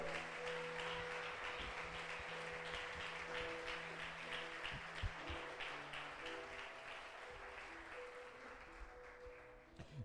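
An audience at a church service applauds the Lord steadily for the full stretch, a dense wash of clapping over sustained organ or keyboard chords, with no talking.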